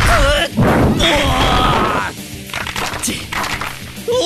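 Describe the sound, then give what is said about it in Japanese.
Heavy punch impacts as the transformed Kamen Rajider drives off an enemy with a Rajider Punch, amid a dense, loud burst of action sound effects, with strained vocal cries and whooshing tones layered over the hits. “変身して仮面ラジダーになった四郎は、ラジダーパンチで雲狂人を退けた。”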